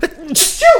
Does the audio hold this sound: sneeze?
yes